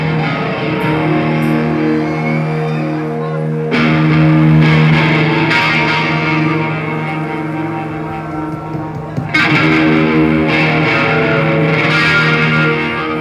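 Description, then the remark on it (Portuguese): Loud, heavily distorted electric guitars drive a dense heavy metal riff, played live, with sustained harmonic chords and pounding rhythm, surging in bursts around four and nine seconds, with no vocals audible. “Essa é pra banguear até a morte.”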